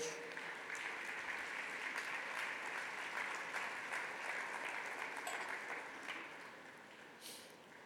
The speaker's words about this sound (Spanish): Ocupe su lugar y dele un aplauso a la palabra de Dios.